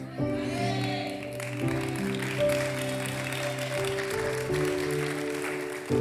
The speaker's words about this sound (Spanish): Ahora usted dice, pastor, ¿y por qué la gente está aplaudiendo por eso?